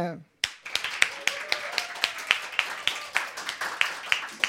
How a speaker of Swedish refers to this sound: Ja, en stor applåd på scen